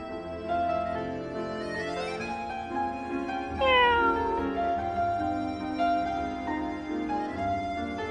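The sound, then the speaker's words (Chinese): A cat named Miss Meow (喵小姐) meows several times in a row, long drawn-out calls whose pitch rises and falls in a sing-song way, fairly loud and steady, with no one talking. “你的叫声很好听，就像一首好听的歌。”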